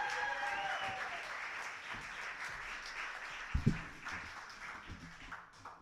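An audience claps steadily, a dense wash of many hands with a few cheers and whistles on top, holding fairly loud throughout before easing slightly toward the end.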